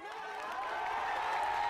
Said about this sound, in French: Sur la grande scène, plane l'aura d'une véritable icône pour ses compatriotes birmans. Entre applaudissements et cris de joie, les voilà qui célèbrent la victoire d'Aung San Suu